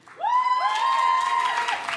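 Audience applause given as an audience vote in a tie, rising quickly and holding steady for about two seconds, topped by loud, sustained high-pitched whoops or whistles from the crowd before easing off slightly.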